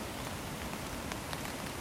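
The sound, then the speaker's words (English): Steady rain falls on a cold, wet day near the East Branch of the Pleasant River, in a continuous wash of hiss, with a few faint individual drops ticking through. It is fairly quiet and even throughout, with no voices. “Normally, Pleasant River is just a rock hop, but right now, with all this rain, the water is raging and it's deep.”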